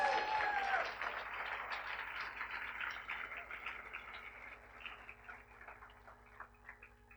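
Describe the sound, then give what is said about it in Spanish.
A crowd gives a strong round of applause to the Lord, a dense crackle of many clapping hands that slowly thins and fades over several seconds, with a brief high vocal sound at the start. “Dan un aplauso bien fuerte al Señor.”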